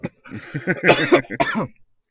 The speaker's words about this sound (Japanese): あ、やばい、咳が。